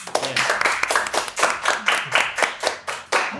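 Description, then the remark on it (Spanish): Hands clap in a quick, steady rhythm, around fifteen sharp, crisp claps in a row at an even loudness, with no voices. “La verdad, un aplauso para ustedes.”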